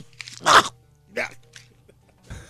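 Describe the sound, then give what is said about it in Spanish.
A sharp, loud crunching bite, followed by a second softer crunch and a faint third, with a low steady hum underneath. “No, no, no, se lo como, maestro.”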